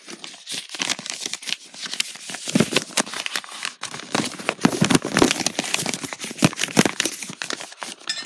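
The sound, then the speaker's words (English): Paper crinkles and rustles for several seconds in a steady stream of crisp, irregular crackles as a folded slip pulled from a jar is opened by hand, with no voices. “I don't know if you heard the paper or not, but this one is what I chose.”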